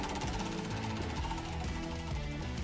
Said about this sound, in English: Go ahead. Spin the wheel.